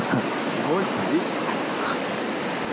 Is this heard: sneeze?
no